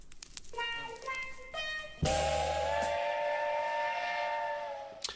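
A steam train whistle sounds in short harmonic toots, then erupts into one long, loud sustained blast with a burst of hissing steam, holding steady before trailing off.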